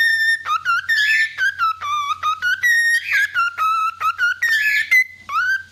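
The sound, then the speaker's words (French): A parakeet whistles a bright, bouncy melody, a quick run of clear chirpy notes with short pauses between phrases, loud and alone with no talking. “Bah oui, c'est juste une perruche.”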